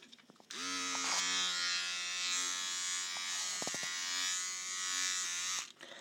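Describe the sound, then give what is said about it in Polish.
A small, low-cost women's electric shaver switches on and runs with a steady, high-pitched buzzing hum for about five seconds, pitch wavering slightly, before clicking off near the end. No voices. “zaprezentuję jej dźwięk tejże golarki, jak ona działa”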